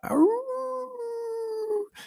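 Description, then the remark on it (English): A single wolf howl swoops upward, then holds a long, steady, mournful note for nearly two seconds before cutting off, clear with no one talking. “All I saw was wolf here, wolf there, howls.”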